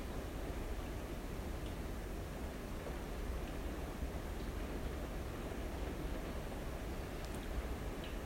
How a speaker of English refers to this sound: I enjoyed listening to the rain.